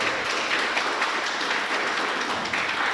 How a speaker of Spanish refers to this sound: Sí, dale un fuerte aplauso a Dios en esta tarde.